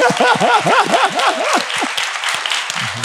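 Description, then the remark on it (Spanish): Dense, steady applause from an audience for a doctor fills the moment, with a run of quick, high rising-and-falling whoops over it during the first half before the clapping carries on alone. “Le damos un aplauso al doctor”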